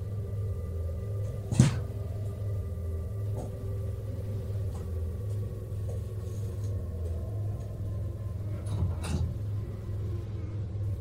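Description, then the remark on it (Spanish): A few faint, sparse footsteps walk to the door of a pitch-dark bedroom over a constant low rumbling hum, then the bedroom door bumps shut; a sharper knock sounds near the start. No one speaks. “Algo caminó hasta la puerta del cuarto y la cerró.”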